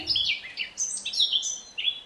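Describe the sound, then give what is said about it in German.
A Eurasian blackcap sings a rich, varied warble of quick, fluting high phrases, clear, with brief pauses between bursts and no other sounds around it. “Nach ihnen kam der Frauenchor mit Rosi Rotkehlchen, Rosa Ringeltaube, Michaela die Mönchsgrasmücke”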